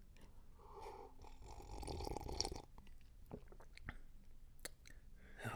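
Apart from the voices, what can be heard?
sipping coffee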